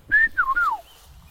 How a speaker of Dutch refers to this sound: Ik hoor weer een wielenwaal. Luister.